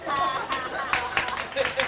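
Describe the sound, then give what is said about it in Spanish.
Applause sent in by listeners during a live show, a steady wash of many hands clapping with brief louder surges, mixed with voices and some tonal sound throughout. “Son aplausos.”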